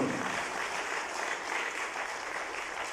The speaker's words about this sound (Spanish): Y en el corazón hay fe que tenemos a un Dios todopoderoso. Si tú tienes un Dios todopoderoso, dale ese aplauso, por favor